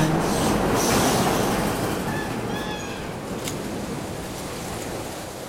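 An elevated metro train in Chicago rattles loudly along its rails, a dense clattering roar with brief metallic squeals, gradually easing as it passes overhead.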